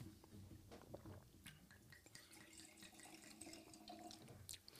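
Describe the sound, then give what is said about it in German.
Morillon Muschelkalk 2019 wine from the Weingut Dement winery being poured into a glass, a steady gurgle and splash of liquid that runs continuously for several seconds, with bright glassy trickling on top and no voices. “Aber ich würde den gleich einschenken.”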